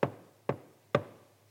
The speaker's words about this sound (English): But then there's a knock at the door.